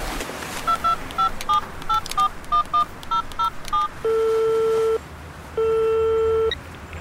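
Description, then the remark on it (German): A rapid run of about a dozen short, clear keypad beeps as a woman dials a number on her mobile phone while walking back to her car, followed by two long ringing tones on the line. “Auf dem Weg zog sie ihr Handy und wählte eine Nummer.”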